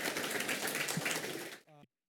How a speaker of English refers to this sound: Let's give him a round of applause for doing this. Appreciate you, man.